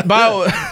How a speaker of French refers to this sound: ben, oh, à tes souhaits.